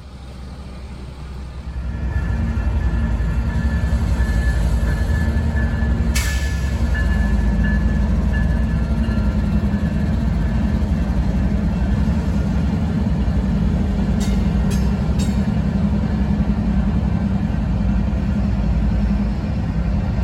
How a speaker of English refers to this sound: So it is train related, and I can see a train off in the distance already.